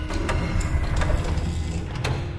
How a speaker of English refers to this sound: Miriam stopped at one of the interior doors and swiped her card to open it.